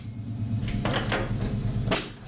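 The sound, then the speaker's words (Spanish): A padlock being fastened on the door of a room in an apartment in Spain when leaving, heard as a few sharp metallic clicks and clacks, with a steady low hum running underneath. “Primera habitación justo enfrente de la cocina y al salir había que cerrar con un candado.”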